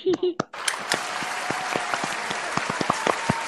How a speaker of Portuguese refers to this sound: Galera, eu queria pedir uma salva de palmas de vocês para o front office do Phoenix Suns, que trocou o TJ Warren por dinheiro. Palmas.